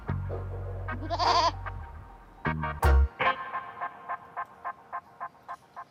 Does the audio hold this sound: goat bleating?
yes